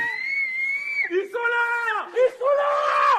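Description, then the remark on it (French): Several drawn-out shouts and yells from lookouts guarding drug traffickers carry across a neighbourhood as an intervention begins, one voice calling after another in quick succession, strident and echoing. “On entend des cris dans le quartier.”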